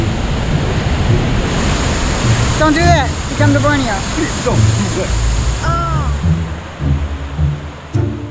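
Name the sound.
rushing waterfall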